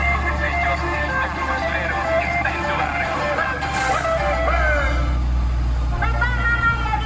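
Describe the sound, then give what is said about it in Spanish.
A garbage truck's loudspeaker blares a cheerful cumbia jingle with a child's voice singing along, telling people to take out the trash, tinny and steady over a constant low engine rumble. “pues estamos escuchando la cumbia de la basura, que nos gustó a todos mucho, eh, que es el camión de la basura, pues tiene un, altavoz con la voz de un niño en el que va diciendo que hay que sacar la basura”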